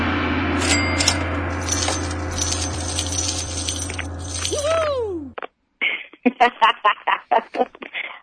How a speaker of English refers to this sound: I chuckle every time, every time I hear that gong.